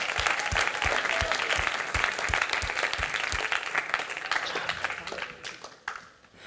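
An audience applauds warmly for several seconds, welcoming a guest up onto the stage, a dense, steady patter of many hands clapping that fades out near the end.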